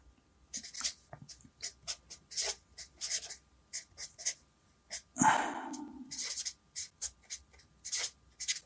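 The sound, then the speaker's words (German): Someone switches to a different pen and writes: it scratches across paper in quick, irregular strokes, fairly quiet, with one longer, heavier scribble partway through and brief pauses between marks. No one speaks. “da nehme ich ein bisschen einen anderen Stift, das ist jetzt halt die äh, Information”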